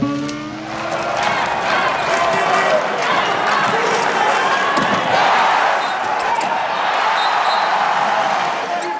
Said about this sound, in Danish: Man kan høre lyden af sportsko, der viner hen over halvgulvet, og man kan høre jublen fra de danskere, der har indfundet sig på tribunerne. Hvad man til gengæld ikke kan høre, er den klistrede, velkroagtige lyd af en håndbold, der rører gulvet.